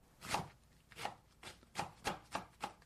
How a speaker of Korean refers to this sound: 자, 지금 당근이랑 양배추를 썰고 있습니다.